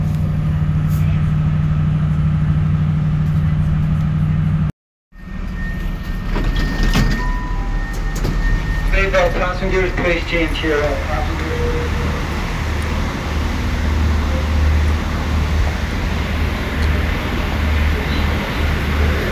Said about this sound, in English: But one of the things that's slightly different about these trains is that whilst Great Western trains are really loud on the outside. When you get inside, you can't hear them. I mean, this train is literally shaking.